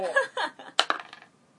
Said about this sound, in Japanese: 何の振りサイコロ振りだったんだよサイコロ振りたいだけちゃうんか